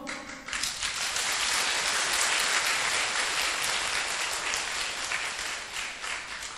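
A crowd bursts into steady, dense applause, many hands clapping together in a continuous wash of sound that holds strong for several seconds before easing slightly at the end.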